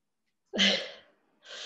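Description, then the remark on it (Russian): A single loud sneeze bursts out sharply and trails off over half a second, followed after a short pause by another breathy burst of noise. “Вот вы сегодня чихнули, так чихнули.”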